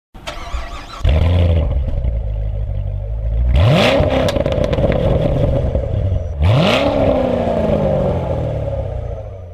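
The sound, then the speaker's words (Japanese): A powerful Corvette American sports car engine starts with a crank, then revs hard twice, pitch sweeping up and falling back each time over a steady, rumbling idle. No one speaks. “はい、ということで今日はですね、今コルベットのね、エンジン音聞いていただきましたけど、私先日アメリカンスポーツカーに試乗する機会がありました。”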